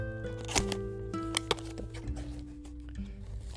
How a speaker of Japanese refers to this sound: ではちょっと開けてみましょう、えー、こうなんかクラフト紙のような感じの、えー、茶色いパッケージになっていますとても素朴な箱ですね